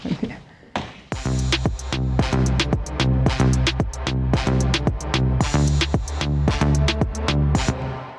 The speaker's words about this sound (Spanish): Y ya que suena esa musiquita es porque aquí andan. Las aves.